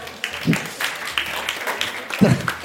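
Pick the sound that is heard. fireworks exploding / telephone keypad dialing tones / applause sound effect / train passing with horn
applause sound effect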